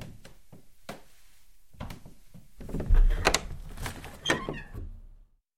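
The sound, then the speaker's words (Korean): An old man staggers to a window and pulls the wooden shutters and the window shut, with a few scattered thuds, then a louder cluster of clattering bangs and a creaking scrape, followed by a few steps as he walks toward the room door. “이윽고 노인이 비틀거리며 창가로 다가가 덧문과 창문을 닫고는 방문 쪽으로 걸어오는 소리가 들려왔다.”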